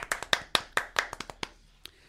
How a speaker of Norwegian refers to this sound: Applaus for meg. Ja, det er applaus, faktisk.